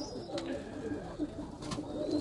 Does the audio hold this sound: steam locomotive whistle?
no